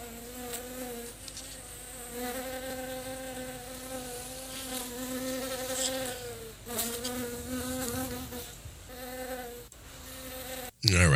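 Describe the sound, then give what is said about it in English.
A dense, steady buzzing of a swarm of killer bees, loud, with wavering overlapping drones that swell and dip for several seconds before a sharp jolt at the end. “Uh, those are bees, and those aren't just ordinary bees. Those are killer bees.”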